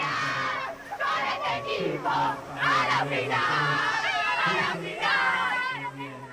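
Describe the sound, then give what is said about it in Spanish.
Argentine women's hockey players shout and cheer euphorically together after winning a place in the final, loud, overlapping, high-pitched voices celebrating continuously, with excited whoops rising and falling throughout. “Escuchen ustedes la euforia de las chicas argentinas, ¿no?”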